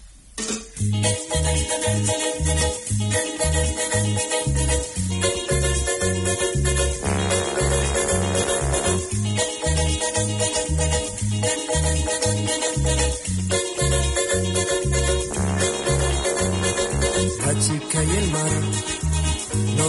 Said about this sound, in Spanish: Vamos a escuchar un poco de música ahora y prometemos para el próximo bloque abordamos la cuestión Juegos Olímpicos. Ahí va.